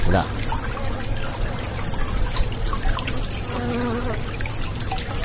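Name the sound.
honeybees buzzing around hives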